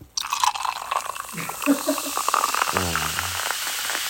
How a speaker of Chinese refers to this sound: 快给大家听一听这个倒雪碧的声音。